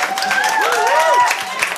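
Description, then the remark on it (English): Steady audience applause after Heathers the Musical is mentioned, a dense wash of clapping with a few voices whooping and cheering over it, fairly loud throughout the short burst. “That can't get a bigger applause.”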